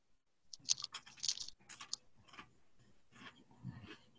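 Crisp crunching as someone chews crunchy food, a burst of sharp bites early on followed by softer, irregular chewing with moist mouth sounds.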